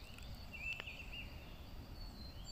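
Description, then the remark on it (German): Quiet forest ambience with a steady high insect-like hum and a few faint bird chirps, one brief call standing out early, over a soft low rumble. No one speaks. “Der Klang des Waldes umschmeichelt dich.”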